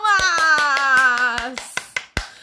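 Steady, rhythmic hand clapping, about a dozen sharp claps, over a loud sustained vocal tone that slowly drops in pitch, then a few sparser claps on their own.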